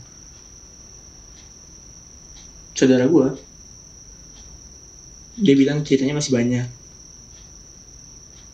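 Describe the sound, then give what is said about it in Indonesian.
Crickets trill in a steady, high continuous drone throughout, faint but constant in the background, at a hilltop (puncak), while two short bursts of conversation pass over it. “itu jangkrik dari mana nih iya omong ngomong kita lagi di puncak kayaknya kayaknya banyak jangkrik hmm Iya sih.”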